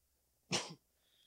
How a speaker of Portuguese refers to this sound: E eu tossindo aqui, matando todo mundo.